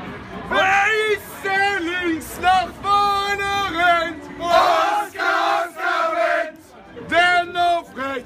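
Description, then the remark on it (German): A large crowd of football fans loudly sings a rhythmic chant for the player Oscar Wendt, their many voices rising and falling together in short repeated phrases with brief pauses. “Lasst euch Spielergesänge einfallen. Wie zum Beispiel hier für Oscar Wendt. Das hörte sich doch so an.”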